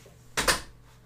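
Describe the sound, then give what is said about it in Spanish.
Two quick, sharp thuds land almost back to back as a bedroom window and then the bedroom door are shut, followed by quiet room tone with a faint steady hum. “Voy a cerrar mi ventana y mi puerta.”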